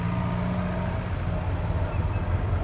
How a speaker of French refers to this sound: tu en reconnais le, bruit du moteur.